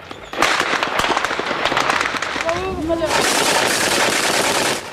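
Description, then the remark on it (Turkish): Rapid bursts of gunfire crackle continuously at the Turkey-Syria border during clashes between al-Nusra and PYD fighters in Resulayn, dense and fairly loud, with a few brief voices or whistling tones rising midway through the barrage. “Türkiye-Suriye sınırında sakin geçen iki günün ardından yine silah sesleri duyuldu.”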